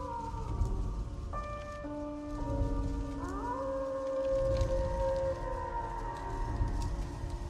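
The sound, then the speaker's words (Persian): Several wolves howl together at night in long, overlapping, wavering tones that rise and hold, set against a steady low rumble like wind or rain. “سپاهیان قیصر روم لشکر حبش رو از سر راه برداشتن و شب که رسید مشغول استراحت شدند اما آواز گرگان برخاست”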